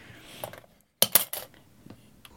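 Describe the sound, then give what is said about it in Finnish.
Dice clatter and tumble across a hard tabletop in a quick burst of sharp clicks, fairly loud, coming up sixes, then settle to quiet. “Joo, se vetää kutosia. kutoinen peräkkäin?”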